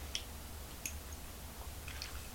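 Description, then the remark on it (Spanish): Quiet sipping of bitter coffee, the first sip of the day: a few soft, wet mouth clicks and small swallowing sounds spaced apart over a faint low hum, with no talking. “Así que me voy a dar el primer buchito del día.”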